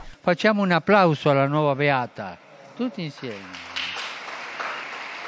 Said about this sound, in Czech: Potlesk pro novou blahoslavenou.